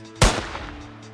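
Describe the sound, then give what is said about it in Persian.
A single loud gunshot from a police officer's gun, fired toward the ground during a struggle over the weapon, cracks out abruptly, then rings off in a fading tail over a low steady background hum. “یه تیر شلیک شده بود منو افسر چش چش شدیم و با چشما و دهن باز بی حرکت وایسادیم و نگاه کردیم دیدم سمت زمین شلیک شده”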